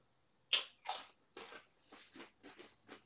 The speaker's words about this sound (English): We uh, stopped to take a quick nacho break, so you might hear some crunching in the background. Please ignore.